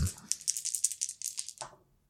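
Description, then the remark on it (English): Dice being rolled for a wits roll, one action die and two challenge dice: a quick run of bright, clattering clicks lasting over a second, ending in a final clack before the sound fades to quiet. No one speaks. “All right, so I've got a six on the action die, and I've got a four and a five on the challenge dice for a strong hit.”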